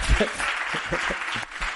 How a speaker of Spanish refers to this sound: Así que vamos a darle un aplauso primero a ella.